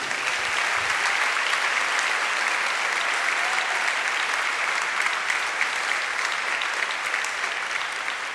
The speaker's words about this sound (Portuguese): Aplauda ele aí bem forte, aleluia.